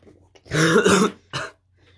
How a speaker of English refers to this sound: you okay, bro? coughing up some shit.